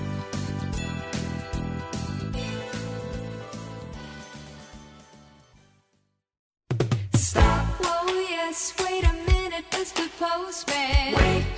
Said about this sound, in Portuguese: estão ouvindo isso? Isso é o som borbulhante da piscina atômica em ritmo natalino.